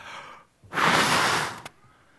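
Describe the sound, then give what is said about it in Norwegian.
A single forceful exhalation, a long breathy rush of air lasting under a second, loud, ending in a brief puff; no talking. “Og så står det at han blåste livet inn i nesa.”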